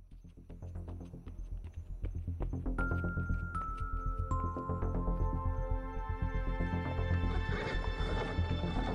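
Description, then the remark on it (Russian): A horse whinnies with rising, wavering cries over a steady, rhythmic clip-clop of hooves on a hard road, fairly loud throughout, with no voices. “дорожного движения, наравне с автомобилем – то есть закон помнит, что встретить на дороге лошадь, запряженную в телегу, дело обычное.”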